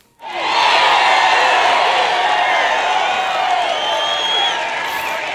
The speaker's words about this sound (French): Je pense que ça mérite un jingle de victoire.